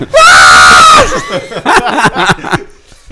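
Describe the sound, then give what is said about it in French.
A loud human scream, shrill and sustained for about a second, breaks off into a few quick, choppy bursts of voice that sound like laughter. “Mais sur Geekleaks, on vous entend crier.”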